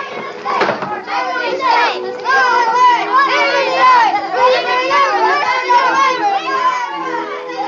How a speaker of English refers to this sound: From outside, we could hear the sound of voices laughing and singing.